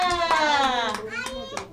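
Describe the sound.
Children clap their hands about six times in a quick, slightly uneven rhythm, applauding a child who gave the letter P in a lesson about fruit and letters, the sharp claps sounding over a high, drawn-out child's voice.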